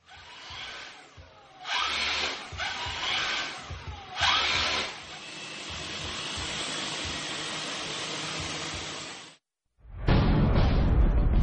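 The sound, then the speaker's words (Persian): Rescue drone propellers buzz in a loud, steady mechanical whir, with a few surging bursts early on, a brief drop to silence near the end, then a rough, louder roar. “صدایی که شنیدید صدای یک پهباد امدادگر بود”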